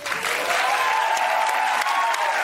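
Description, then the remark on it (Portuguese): An audience applauds steadily as Cláudio Manuel of Caceta e Planeta is introduced, a dense, even wash of many hands clapping at once that holds at a constant, fairly loud level from start to finish. “Pode aplaudir também.”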